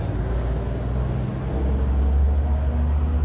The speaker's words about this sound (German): Und genau, das hier ist gerade, glaube ich, die Müllabfuhr oder irgendwas ähnliches.